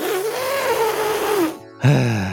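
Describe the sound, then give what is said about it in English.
A person loudly imitates an elephant trumpeting: a long, buzzy, wavering blare that rises and falls, a brief gap, then a second shorter blast. “I can make an elephant sound!”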